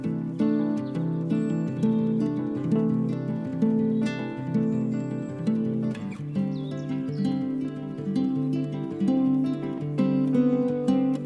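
A song from a British singer-guitarist's newly released third album plays with a steady, full instrumental sound. Rich sustained low and mid tones sit under a regular percussive pulse, holding an even, fairly strong level throughout with no talking.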